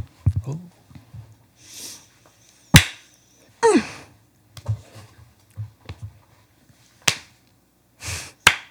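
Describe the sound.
Several sharp hand claps ring out at uneven intervals, each a crisp, loud smack, with faint murmuring and soft background voices in the gaps between them.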